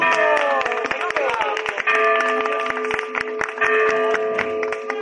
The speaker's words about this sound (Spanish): Bien, con campanas y todo. Además es la, la campana de la iglesia donde me bautizaron, entonces no hay ningún problema.